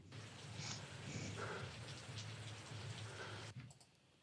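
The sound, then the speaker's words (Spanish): Steady rain falling, a dense continuous hiss of drops with no voices, holding evenly for several seconds before cutting off abruptly near the end. “Pura lluvia.”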